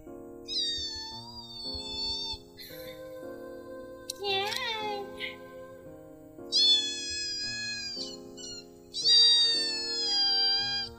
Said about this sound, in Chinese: 大家听到了吗？这就是猫饿了的声音。